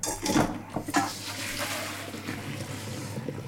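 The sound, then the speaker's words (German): Water pours and splashes steadily as the cooking water from a pot of asparagus is drained off, with a couple of brief sharper splashes near the start and a continuous rushing flow after. “Deswegen gieße ich das jetzt ab und ab ins Eiswasser.”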